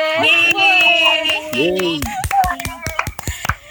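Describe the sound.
Voices carry through the first half, then a burst of sharp, irregular hand claps breaks out, loud and crisp, a small group applauding the chair and vice-chair of KMDEB over the final second and a half.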